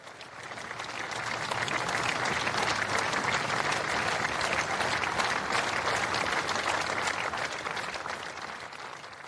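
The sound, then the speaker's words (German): Sustained applause from a large outdoor crowd of spectators at a cycling race finish as six riders of one team cross the finish line together ahead of the field; dense, steady clapping swells in the first seconds and holds at full strength before easing slightly at the end. “die sechs Fahrer von Bachwein vom Gino sind Team geschlossen über die Ziellinie gefahren sind vor dem Feld äh, ist dann applaudiert worden”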